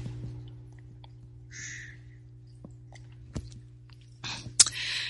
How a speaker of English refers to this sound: time for me to have a little sip of my tea here, my morning tea.